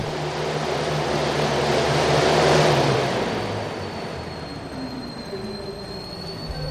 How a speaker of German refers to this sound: Ja, das ist ähm, ein Gerät, mit dem man selbst Wind erzeugen kann. Im Prinzip ein Fahrrad, wo man sich draufsetzt und damit einen großen Propeller antreibt. Und ein entsprechendes Messgerät zeigt einem dann die Windstärke an.